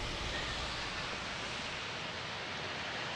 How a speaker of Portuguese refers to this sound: Estou vendo que continua chovendo. Como é que está a situação aí?